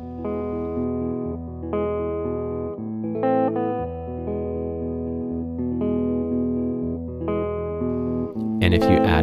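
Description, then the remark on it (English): An electric guitar plays through a real guitar amp miked with microphones, ringing out sustained, slightly overdriven chords that change every couple of seconds, played alone, until a brief noisy burst at the very end. “So, the guitar sounds like this.”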